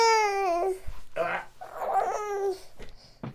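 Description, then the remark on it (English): A young child sings a nursery song in a high, wavering voice, a few short melodic phrases broken by brief pauses and breaths, fairly loud. “if you can hear me over somebody singing "Mummy Finger," "Mummy Finger," "Mummy Finger," where are you?”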